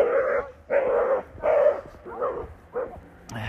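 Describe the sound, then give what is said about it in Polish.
A small dog on a leash barks aggressively, a run of five sharp, mid-pitched barks at a steady, evenly spaced rhythm, each loud and rough-edged, with no one talking. “Im mniejszy, tym bardziej agresywny. Dobrze, że na smyczy był.”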